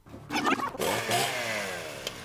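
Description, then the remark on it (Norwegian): A man's chainsaw engine snarls in a film scene, revving hard before its buzzing pitch slowly winds down. No one speaks. “Bjørn Flobergs skumle stemme prater Kristoffer Joner, og så kutter vi til en fyr med motorsag, plutselig som har laget radio fra dusjen til Wenchefoss og i senga til Martha Lois.”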